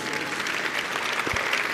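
An audience applauds Jesus for the completed Farol project, a steady, dense wash of many hands clapping at once with no pauses, fairly loud and even throughout.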